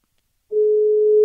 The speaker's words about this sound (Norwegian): Det er i hvert fall ringelyd. Det er summetone, summetone, i hvert fall. Fryktelig kjett om man ikke tar telefonen nå, merker jeg.